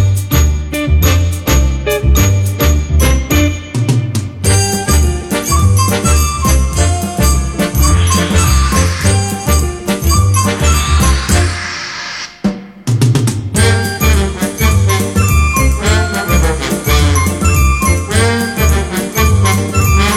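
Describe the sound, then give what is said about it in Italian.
The theme song of the animated series Ispettrice Gadget (Inspector Gadget), played at number 8 on Radio Animati, plays loudly and steadily, with a bouncy, pulsing bass line under bright, tinkling melody notes, briefly cutting out for a moment midway before resuming. “La sigla negli anni è diventata un cult ed è stata ripresa anche da cantanti di musica leggera”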